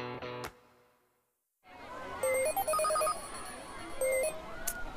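A mobile phone ringtone plays a bright electronic melody, then restarts briefly and stops abruptly as the caller hangs up after a single ring.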